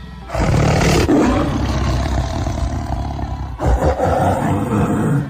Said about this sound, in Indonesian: Di tengah kegaduhan itu, diselingi auman marah seekor macan gembong Suara gaduh tidak mereda. Meskipun sudah berjalan beberapa lama, suara gaduh yang diselingi suara gereng dan aum harimau.